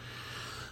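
A dog named Kodak pants quietly and steadily, a soft breathy rasp with a faint snorting edge over a low hum, with no one speaking.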